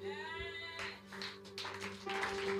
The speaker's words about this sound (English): If you are clapping, you can clap well for Jesus.